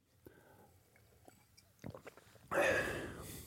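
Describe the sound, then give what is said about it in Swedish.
Quiet mouth noises and small wet clicks, then a loud, breathy rush of air as someone breathes in before taking a sip of a drink and swallowing, with no one talking. “Okej, låt mig prova. Nu tar jag en klunk här.”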